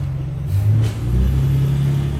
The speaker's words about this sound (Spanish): Ah, pasó un carro.